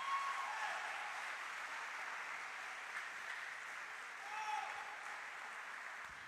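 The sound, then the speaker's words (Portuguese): An audience applauds in a steady, dense wash of clapping that holds at an even level for about six seconds, with a few faint voices barely surfacing through it. “Quero que você aplauda, Senhor.”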